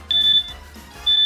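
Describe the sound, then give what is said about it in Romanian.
Two loud, high-pitched electronic beeps from a car's brake system warning sound alone. The second follows the first after a short gap, and each is clear and steady. “E ceva pe uh, frână. Pe frână, are ceva pe frână da, și... merge cu frână.”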